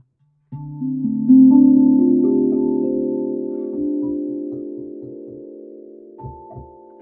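The largest of the tongue drum family is struck several times in slow succession to accompany a meditation, its warm, ringing tones overlapping and sustaining into a long, gently fading resonance, with a soft final strike near the end.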